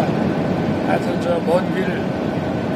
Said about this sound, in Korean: 야, 이게 공군 1호기 정말 음질이 안 좋군요. 아. 비행기 날아가는 소리가 시끄러워서 대통령과 이 김건희 여사 목소리는 아주 작게 들려서 네.